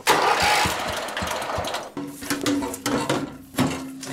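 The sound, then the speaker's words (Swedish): A small electric-start tractor engine cranks and catches, then runs loud with a rough, uneven chug and a few revving surges; no one speaks. “njutningen i att få kliva ner där och, och höra motorljudet och sådär”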